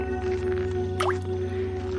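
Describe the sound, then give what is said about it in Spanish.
A single water drop plinks sharply once onto a wet floor, with a quick sliding pitch, set against a steady low electrical hum with no voices. “Las gotas siguen cayendo sin cesar. El cántaro se desborda haciendo rodar el agua sobre un suelo mojado.”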